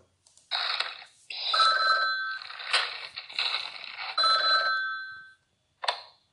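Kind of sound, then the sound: signal or alarm, phone call ringing tone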